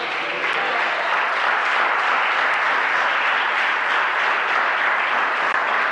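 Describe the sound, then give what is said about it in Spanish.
A large audience at a church service claps steadily and loudly for the Lord, a dense, continuous wash of applause that holds evenly for several seconds without pause or talking. “Sí, hermano, déselo fuerte al Señor.”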